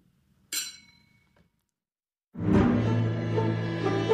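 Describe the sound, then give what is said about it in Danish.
A single bright clink of glasses in a toast rings out and fades over about a second, followed after a short silence by a loud burst of dense, full sound that continues to the end. “Skål. Skål.”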